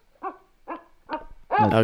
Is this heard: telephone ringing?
no